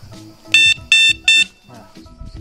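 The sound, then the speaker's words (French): A vehicle horn honks three times in quick, even succession, each blast short, loud and buzzy with a bright, high-pitched tone, over a low background rumble. “Et là, c'est le klaxon.”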